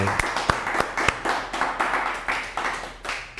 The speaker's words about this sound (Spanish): Ahora un fuerte aplauso a todas las naciones. Les saludamos. Que se escuche el aplauso fuerte.